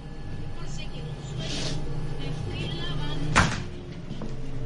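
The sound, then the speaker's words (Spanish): In a grocery shop, a refrigerator door opens to take out a carton of milk with one sharp click and thunk, following a softer rustle, over a steady low electrical hum and faint indistinct background murmur. “Abre una puerta y coge un brick de leche.”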